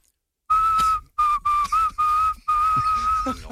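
A person whistles a steady mid-pitched tone in five closely spaced, sustained bursts, the pitch dipping briefly once, imitating how a woman whistles. It is clear, with no talking.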